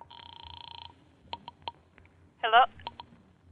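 A telephone being dialed: a steady tone, then a quick run of short touch-tone beeps with a brief warbling chirp in the middle, over a quiet background.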